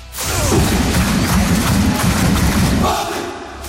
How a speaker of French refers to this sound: vous avez 5 minutes dès que vous entendez ce clapping du Paris Saint-Germain.